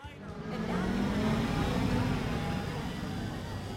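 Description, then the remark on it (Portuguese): A car engine roars steadily as the vehicle pulls off quickly, its rumbling noise holding loud before easing slightly toward the end. “Vocês saíram com o carro assim meio, meio rápido dali”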